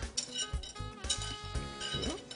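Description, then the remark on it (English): A spoon scrapes and knocks against a pan, transferring a soft cooked peach mixture into a blender with a series of repeated clinks and scrapes, and no talking. “And I'm just going to add that to my blender.”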